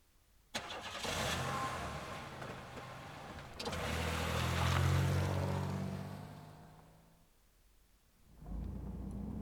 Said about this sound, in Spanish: El auto blanco salía del caserío por entre caminos de tierra, estrechos, colmados de vegetación por ambos lados, que desembocaban en una carretera de doble sentido y peligrosamente sinuosa.